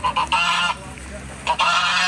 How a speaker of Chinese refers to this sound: 不过，我们再来看巴西这所监狱，却走生态路线，他们养了一群鹅护卫。 一群鹅沿着监狱围墙来回走动，有任何风吹草动，他们就扯开嗓门，集体放声大叫。狱卒一听便知道有人越狱了。